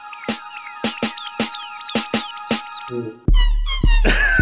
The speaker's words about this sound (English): my boyfriend always plays this weird sex song